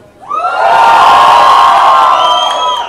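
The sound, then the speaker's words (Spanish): A loud crowd erupts in sustained cheering and high-pitched whoops, a dense wall of voices swelling quickly and holding for a few seconds before easing slightly. “Quiero, hagan bulla quienes nos han escuchado desde el capítulo 1.”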